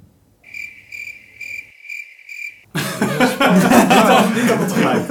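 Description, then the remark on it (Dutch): A cricket chirping sound effect in a steady, high-pitched rhythm, about five clear pulses against quiet, then a loud, noisy burst of voices abruptly takes over. “Hey, kun jij hier ook zo'n krekeltje in uh, ja, editen?”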